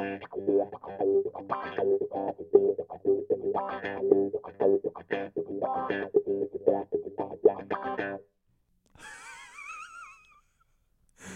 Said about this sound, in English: And then as soon as you add the wah pedal, comes to life.